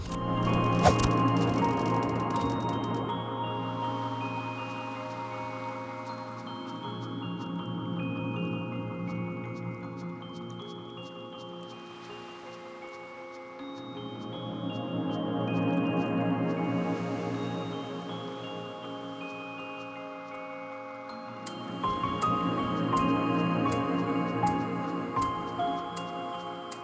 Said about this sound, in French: Et en fait, genre, c'est de la musique du jardin, là, par exemple.